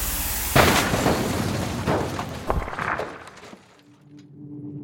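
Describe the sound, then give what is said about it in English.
Several heavy booming blasts hit in quick succession, loud and rumbling with a crackling tail, before fading out to a quieter low hum. “I hear explosions or something.”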